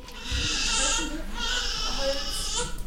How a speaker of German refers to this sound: Die Kinderstation im Klinikum Ingolstadt. Bis es hier zum ersten Schrei eines Babys kommt, müssen die Eltern und allen voran die Mutter auch lange warten. Dann aber ist die Erleichterung groß.